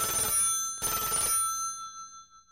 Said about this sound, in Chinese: 而就在这个时候，电话突然响起了， 布灵布灵布灵。